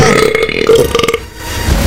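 A loud, drawn-out burp lasting nearly two seconds, croaky and rumbling with a pulsing, rattly texture that roughens toward the middle before trailing off.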